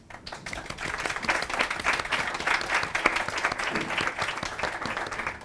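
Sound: audience applause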